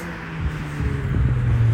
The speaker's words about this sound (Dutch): Even opletten met oversteken. Het is hier wat drukker met de auto's.